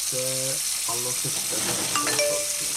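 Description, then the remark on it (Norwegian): A steady hiss of running water, like a tap flowing over dishes in a sink, continuing throughout with a voice sounding over it in short bursts. “Litt lavere. Altså, oppvasken.”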